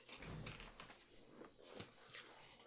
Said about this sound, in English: Sorry, I was moving my chair. If, that, if that's the noise you heard, because a lot of people.